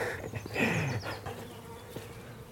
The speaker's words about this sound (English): hear the bees buzzing and flies buzzing.